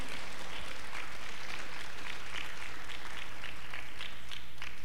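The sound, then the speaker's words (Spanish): A church audience applauds the Lord together, a dense wash of many hands clapping steadily and fairly loudly for several seconds, with faint crowd murmur and a low steady hum underneath. “¿Todavía puedes aplaudir al Señor o ya no?”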